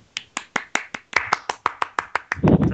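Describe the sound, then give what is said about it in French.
Applause welcoming a guest, made of crisp, evenly spaced claps, about a dozen in a steady quick rhythm, ending in a louder, denser burst of sound with what may be a voice mixed in. “Je crois qu'il faut enlever les applaudissements.”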